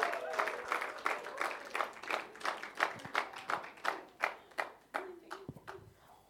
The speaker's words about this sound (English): Give them a round of applause.